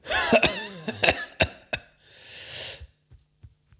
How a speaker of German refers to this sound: Was, was, was räusperst du dich da so rein ins? ins Mikrofon. Was ist los bei dir?